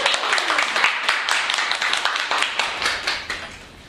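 A room full of people applauds warmly, a dense patter of many hands clapping at once that holds steady for a few seconds before tapering off at the end.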